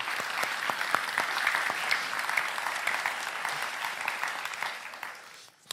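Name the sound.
audience applause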